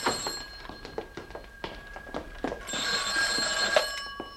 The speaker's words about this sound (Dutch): De telefoon.